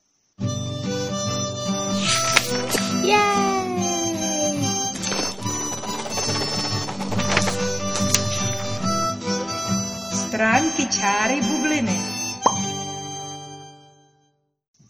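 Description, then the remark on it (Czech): A bright, busy musical intro jingle with chiming bell-like tones and swooping synth glides, playing steadily for about thirteen seconds with a brief shout and a few spoken words, then ending abruptly. “Ale to až po znělce”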